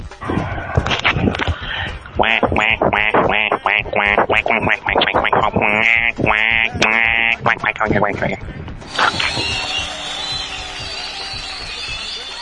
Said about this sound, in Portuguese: Analisemos o pato. Peraí, deixa eu abaixar aqui. E lá vem o pato. Por favor, repita o pato.